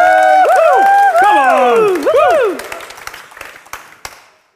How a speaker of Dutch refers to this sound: En geef een groot applaus voor de ster van de dag, Johannes de Doper.